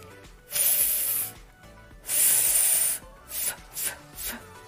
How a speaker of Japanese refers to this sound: 内側の中でも濡れてるところと乾いてるところの間ぐらいの位置に上の歯を軽く当てますでその状態で上の歯とその下唇の間から息をシューッと出すんですねこれが F の音になります